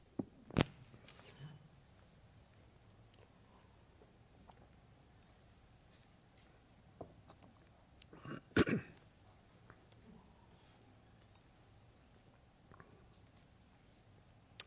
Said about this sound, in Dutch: Even kijken, moet kuchen.